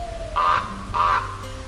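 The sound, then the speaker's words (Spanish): Two harsh, raspy raven caws ring out one after the other with a short pause between, loud over a faint background hum, with no voices. “envió a sus cuervos, Hugin el pensamiento y Munin la memoria, a sobrevolar la creación”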